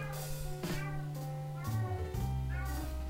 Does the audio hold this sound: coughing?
no